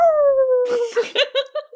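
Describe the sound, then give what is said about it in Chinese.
A person imitates a dog's howl with one long, loud, steadily falling wail lasting nearly a second, followed by short choppy bursts of voice, like laughter or quick talk. “你是条狗？为什么这期开始都大家都开始搞口技这个东西啊？”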